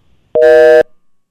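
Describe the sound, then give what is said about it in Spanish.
A short, loud electronic tone cuts in abruptly, a steady harsh buzz with stacked harmonics lasting about half a second, a glitch on a telephone line during a call, followed by faint low murmur. “Ahí le dio la culebrilla de nuevo. este teléfono.”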